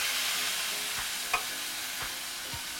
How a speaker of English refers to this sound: Then we're gonna return our beef. We're ready to add our liquids. So here I have our coconut milk